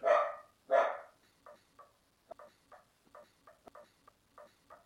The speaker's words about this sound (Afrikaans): En enige as jy aandag aftrek, al die honde daar buite, die verkeer.